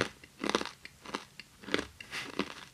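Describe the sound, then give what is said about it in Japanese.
Loud crunching as a hard, dry Okinawan squid snack, Icha Gari Gari, is chewed, with four or five sharp crackly bursts at an uneven chewing rhythm and no talking. “噛むの美味しいでしょうんうまあまあ。”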